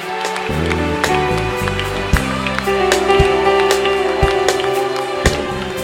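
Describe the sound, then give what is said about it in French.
A large crowd cheers, shouts for joy and claps loudly and continuously in praise of the Lord during worship, with sharp claps and shouts over sustained tones from music playing underneath, for several seconds. “Oh, poussons des cris de joie pendant que vous acclamez très fort.”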